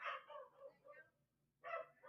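A dog barks in a quick run of yaps, pauses briefly, then starts barking again; the sound is fairly faint, with no one talking.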